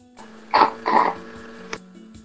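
Two short, gurgling slurps of mate through a straw as the gourd runs nearly dry, fairly loud, followed by a faint click and quiet background.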